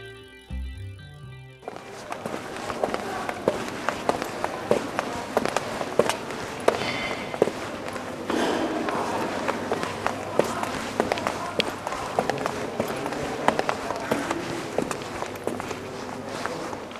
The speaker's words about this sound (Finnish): käveltiin kauppakeskuksen kolmanteen kerrokseen rappusia pitkin.